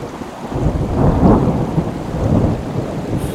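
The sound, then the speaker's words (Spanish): A deep, rolling rumble of thunder swells and fades in broad waves over a steady hiss of approaching heavy rain. The sound is fairly loud, with no voices. “¡Uy, córrele, que viene la lluvia!”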